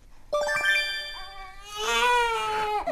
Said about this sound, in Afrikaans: Dis 'n baie deurmekaar dag in Stefans se huishouding. Hoor net die geraas. Die baba huil